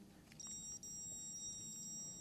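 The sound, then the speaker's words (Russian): A faint, steady high-pitched electronic tone from a detector set to the lowest of its three volume levels, very quiet, sitting over a low background rumble with no talking. “Вот один сигнал тихий,”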